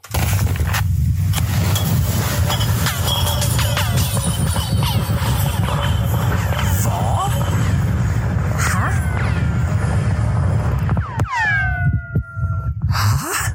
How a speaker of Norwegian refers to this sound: Eh, har dere noen gang hørt lyden av at man slipper en isblokk 137 meter ned i Antarktis? Hmm, nei. Mm, la meg tenke nei. Nei, Kanskje vi skal høre hvordan det høres ut, da?